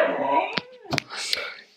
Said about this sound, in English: in case anyone's wondering, that's a dog in the in the background.